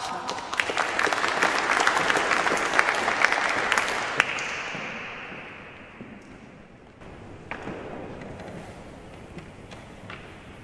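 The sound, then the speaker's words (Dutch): An audience claps warmly to welcome a guest, a dense burst of applause, loud for about four seconds, then thinning out and fading into scattered claps and background noise. “Graag een warm applaus voor Anna”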